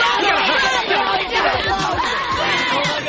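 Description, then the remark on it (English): A panicked crowd shouting and screaming all at once, a loud, dense wall of overlapping voices with shrill cries rising and falling throughout, as people flee a skunk, running over chairs and tables for the nearest exit. “Everybody started shouting and screaming and running over chairs and tables for the nearest exit.”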